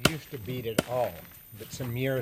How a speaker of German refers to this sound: Darauf ein Stapel gewundener Lianenstücke, die meisten etwas dicker als ein Besenstiel. Damit möglichst alle Inhaltsstoffe in das Wasser übergehen, in dem sie später kochen, werden die Stücke erstmal mit einem schweren Holzstück zu Fasern geklopft.